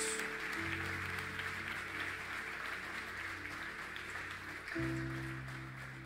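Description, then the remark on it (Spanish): A church audience applauds the Lord during a sermon: steady, dense, sustained clatter of many hands, while low held keyboard chords play underneath and shift to new notes twice. “Quisiera que le dieras un fuerte aplauso con todo tu corazón al Señor, fuerte, porque es la verdad, es la palabra de Dios.”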